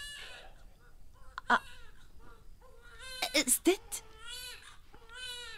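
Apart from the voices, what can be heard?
baby crying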